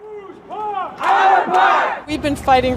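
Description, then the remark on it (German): A protest crowd chants loudly at a demonstration in Downtown Manhattan for socially fairer flood protection, many voices rising and falling together in rhythmic, shouted phrases, with a brief pause before a fresh burst of chanting. “Demonstration in Downtown Manhattan für einen sozial gerechteren Hochwasserschutz.”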